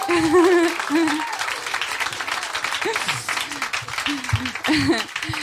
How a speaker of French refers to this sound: on l'applaudit.